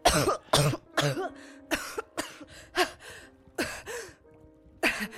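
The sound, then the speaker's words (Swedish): A rapid series of harsh, wet-sounding coughs mixed with strained gasps and throaty retching, about ten loud bursts coming in uneven fits with brief pauses, as a woman revived from near-drowning turns onto her side and spits out water. “Hosta till och liksom vänder sig åt sidan och börjar spy ut vatten där.”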